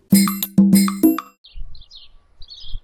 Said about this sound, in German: Ja, äh, ich bin jetzt gerade hier draußen. Ihr hört wahrscheinlich schon die Vögel und vielleicht den Wind auch. Es ist aber trotzdem hier sehr warm und deswegen gehen wir schnell wieder rein.